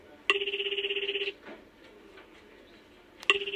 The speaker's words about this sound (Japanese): 目の前の電話が鳴った内田刑事が受話器を取った